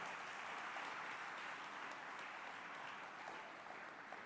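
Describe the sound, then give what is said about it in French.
Sustained audience applause as the speakers step down, a dense steady wash of many hands clapping with no pauses, holding an even loudness throughout without any voices. “On nous applaudit encore pendant que vous descend.”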